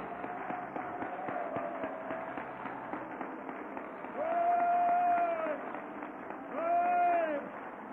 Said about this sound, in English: If you're a winner, let's clap our hands. I want winners to clap your hands.